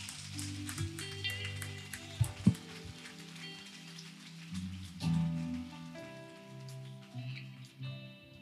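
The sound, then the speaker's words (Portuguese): An audience applauds steadily at a preacher's call during a worship message, a dense crackling wash of many hands clapping over sustained keyboard chords and music, with a few louder bursts near the start. “Os caras foram adorando, pode aplaudir, pode aplaudir.”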